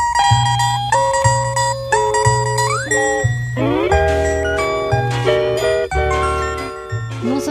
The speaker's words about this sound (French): il aurait inventé l'enregistrement multipiste, mais en plus il aurait inventé la distorsion. En tout cas, ce, morceau prouve qu'il s'est beaucoup amusé avec les distorsions de sa guitare. Là, on est en 1948